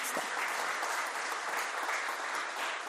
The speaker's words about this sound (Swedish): Ja, det är värt en applåd om ni inte tycker det.